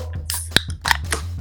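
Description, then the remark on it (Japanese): Beer cans cracking open for a toast, a sharp metallic pop followed by bursts of fizzy hiss, with a few overlapping openings in quick succession and no talking. “DJ が DJ が奏でるこの缶を開ける音。”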